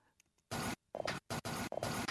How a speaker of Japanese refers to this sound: これコピー機の音なんですよ